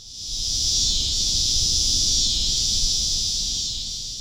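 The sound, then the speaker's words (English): A loud, steady drone of cicadas behind the Notebaert Nature Center in Chicago, their timbals clicking hundreds of times a second into a dense, high-pitched, continuous whine that swells slightly and holds throughout, with a low rumble of outdoor noise underneath and no voices. “Why Are The Cicadas So Loud”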